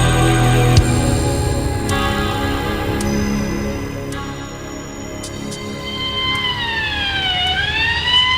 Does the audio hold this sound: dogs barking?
no